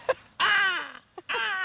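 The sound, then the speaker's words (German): A person imitates a black-headed gull with two drawn-out, harsh wailing squawks, each dropping in pitch, preceded by a short sharp onset and separated by a quick gasp, fairly loud. “Kannst du auch gut Vogelstimmen imitieren? Kannst du die Lachmöwe vormachen?”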